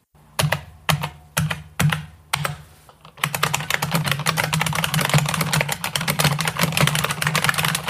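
Loud, clacky typing on an IBM Model M mechanical keyboard: a few slow, separate keystrokes at first, then a fast, continuous burst of rapid clicking. No voices.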